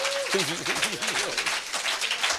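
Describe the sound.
An audience applauds, a dense, steady wash of clapping that lasts the whole moment, with voices calling out and cheering over it.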